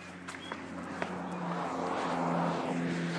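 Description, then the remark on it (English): A car drives past, its low engine hum and road rush swelling to a peak near the end before starting to ease off, with a few faint clicks early on. “And it is also time for a car to be walking, walking, driving.”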